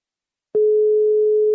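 A single steady telephone ringback tone, a clean one-second beep heard alone at moderate loudness as a call goes through to Naturstyrelsen on Møn, Denmark, with silence before it.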